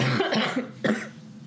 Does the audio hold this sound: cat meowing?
no